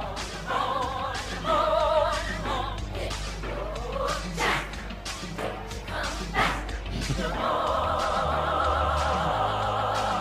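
A surreal, experimental cover of a soul song: warbling, wavering tones over a steady low drone, punctuated by scattered thumps and clattering hits, growing denser and fuller in the final few seconds.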